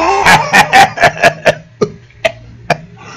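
A chicken clucks and cackles loudly and close by, a quick run of sharp calls that slows into a few spaced-out clucks, with no one talking.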